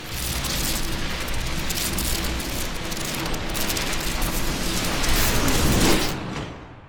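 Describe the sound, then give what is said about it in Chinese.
Loud, sustained crackling and snapping of electric discharge from a Tesla machine switched on in a stage magic act, a man walking into its centre amid the lightning and vanishing; a dense buzzing roar that swells toward the end before abruptly dying away. No one speaks. “机器就是特斯拉的机器，请了好几个观众上场检查，接着启动电源，在一阵闪电之中走入中心，接着人就消失了。”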